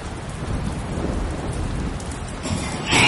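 Steady, heavy rain hisses throughout a thunderstorm, with a deep low rumble underneath and a brief swell in loudness near the end. No one speaks.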